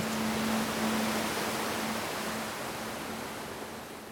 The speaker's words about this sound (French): Le vent souffle en bourrasque, des particules de sable te fouettent les yeux et te forcent à baisser les paupières. La mer est sale, le ciel vire au noir, et le vent fait s'agiter les les palmiers rachitiques, avec une fureur mauvaise.